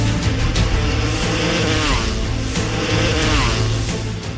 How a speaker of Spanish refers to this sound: Buenas tardes Andalucía ha comenzado ya el Gran Premio de España del Campeonato del Mundo de Motociclismo que se celebra cada año aquí, en Andalucía. Han comenzado las motos a rodar en el circuito de Jerez.